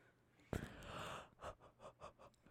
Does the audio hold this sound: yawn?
yes